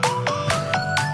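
A doom metal cover of a bubblegum pop song plays: sustained droning tones under a steady, evenly spaced pounding beat, fairly loud, with no voices.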